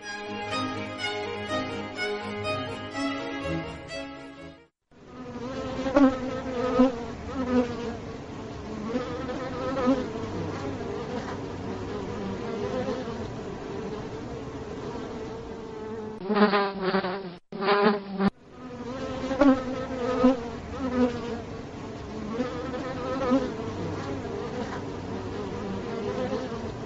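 A dense swarm of bees drones steadily, a thick layered buzz with a wavering pitch. It briefly thins and cuts out for a moment near the end before surging back at full strength.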